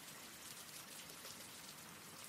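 Steady rain falls in a continuous, hissing patter with fine speckled drops, soft and even throughout, with no voices or other sounds.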